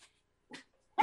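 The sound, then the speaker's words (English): A dog gives a short muffled bark, then a faint thin whine, then a louder, sharper bark. Nobody speaks. “and dogs was on wild.”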